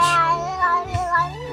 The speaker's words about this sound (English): You probably don't want to touch or go near a cat that sounds like this.